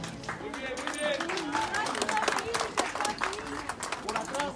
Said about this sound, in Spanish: Uno de ellos, Randy, salió al momento de la explosión, pero los otros dos Chato y Chamaco fueron rescatados de los escombros luego de una minuciosa búsqueda. Vecinos y personal de emergencias los recibieron entre aplausos.